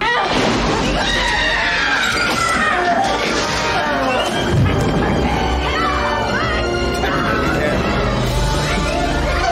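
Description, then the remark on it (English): Dense, chaotic soundscape of creatures being burned alive in a kiln in a film scene: overlapping high-pitched screams and shrieks, with rumbling roar and crashing noises underneath, loud and continuous throughout. “you know, the screaming and the flame, and the way they're looking.”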